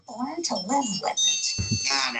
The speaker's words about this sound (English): a doorbell would ring loud enough for anyone to hear outside of the house.